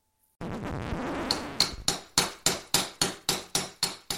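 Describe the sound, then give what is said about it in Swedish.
A steady series of sharp hammer blows from a farmer knocking on something, about one every third of a second, striking something hard with a bright metallic ring, following a brief stretch of dense noise at the start. “Nu hör jag att det är någon av bönderna som håller på att knacka på någonting.”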